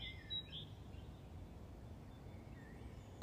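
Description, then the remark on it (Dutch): Birdsong outdoors: a couple of short high chirps near the start and another soft call later, over a low, steady rumble of background noise. No one speaks. “Misschien is het nog wel fijn om gewoon even te luisteren naar de vogels, de vogels om je heen, de vogels die ik hier nu hoor.”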